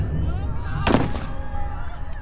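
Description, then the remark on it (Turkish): A single sharp gunshot cracks out loudly, a brief burst with a short decaying tail, set against a low, steady rumbling background bed. “Bunu gören James bağırdı ve silahını bebeğin sırtına doğrulttu.”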